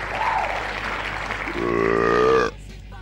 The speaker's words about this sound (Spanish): Aplausos. Por aparecer de nuevo, Víctor. Y un chanchito.